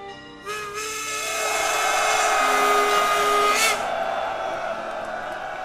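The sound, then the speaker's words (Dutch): A steam locomotive whistle blows one long, sustained chord of several stacked tones, swelling loud for about three seconds before cutting off and leaving a softer hissing whistle behind. Locomotive whistles sounding in Kortrijk at the end of the war. “Doorbroken door stoomfluiten van locomotieven.”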